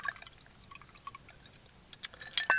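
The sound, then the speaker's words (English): A cognac stinger cocktail strained into a glass: a soft, uneven trickle of liquid with scattered drips, ending in a couple of bright glassy clinks. Quiet throughout, with no voices. “Straining this nicely.”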